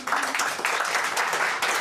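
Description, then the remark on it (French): A comedy club audience at a stand-up show applauds in a steady, dense wash of clapping, fairly loud and continuous for a couple of seconds with faint vocal murmurs underneath, clapping to show who is at a comedy club for the first time. “Qui d'autre par applaudissement vient pour la première fois en Comédie Club”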